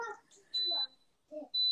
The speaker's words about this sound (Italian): Cosa è successo? Un allarme? Eh, la lavastoviglie. La lavastoviglie.